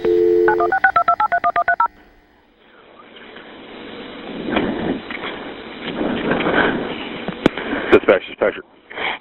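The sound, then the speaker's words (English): A quick run of about ten touch-tone dialing beeps as a Monroe 911 dispatch call requesting an ambulance is placed around 1 a.m., seconds after a shooting; then the line opens into a steady, rough hiss with scattered clicks and rustles. “This is a dispatch call made seconds after”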